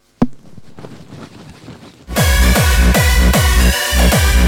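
A soft tap, then quiet rustling, followed by loud, steady rubbing of an XL-size flock-printed jacket: repeated broad scuffing strokes about twice per second, each with a low whooshing swell.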